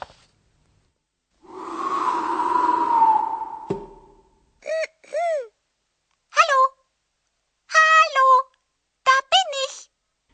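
The eerie, otherworldly voice of an invisible, imaginary creature character in a program, sounding like a talking computer: one long wavering moan, then a string of short, sweeping electronic-sounding chirps in quick bursts, fairly loud, with no one speaking.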